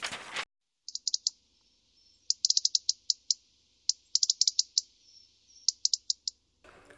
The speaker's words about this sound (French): Le rouge-gorge. J'ai vu le rouge-gorge en revenant à la fin. Je l'ai aperçu voler autour des arbres.